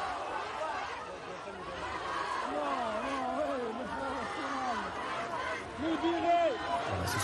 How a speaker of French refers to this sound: des Allah Akbar qu'on entend, Allah Akbar avec des flashs de téléphone qui crépitent. Alors Allah Akbar en soi, ça veut dire euh, Dieu est le plus grand, Allah est le plus grand